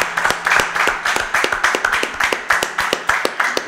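An audience applauds steadily, many hands clapping in a dense, continuous patter with a few sharper individual claps standing out, fairly loud throughout, with no talking over it.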